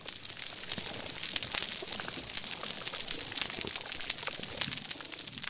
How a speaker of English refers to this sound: I probably would have never guessed that those crackles were coming from a vibrant coral reef.